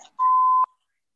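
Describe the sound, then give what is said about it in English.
A landline home phone rings once with a single steady electronic tone, a short clear beep of about half a second, heard alone against near silence. “Sorry, my phone just went like the, the home phone went off.”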